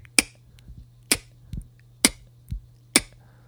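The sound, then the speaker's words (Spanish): A beatboxed snare made with a sharp K sound, tongue at the back of the palate, demonstrated in a beatboxing lesson: four crisp, bright clicks at a steady pace, interleaved with softer, low thumping beats. No talking. “Genial, ahora vamos a hacer la caja, que suena de esta forma.”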